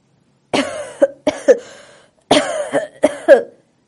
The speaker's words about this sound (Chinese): 咳嗽，嗓音呀十分粗重。